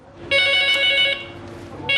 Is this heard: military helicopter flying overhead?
no